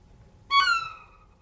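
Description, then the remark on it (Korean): A violin imitates a seagull: a single high, bright bowed squeal that jumps in loudly, slides slightly in pitch, and fades over about a second, with no talking. “갈매기 소리부터 해요. 네, 갈매기 소리.”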